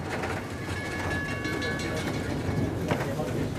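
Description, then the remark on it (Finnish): A passenger train rolls steadily along the rails with a continuous rumble and a thin metallic whine, while a faint murmur of voices sits underneath. “Erityisesti kotimaan matkailussa juna on yliveto.”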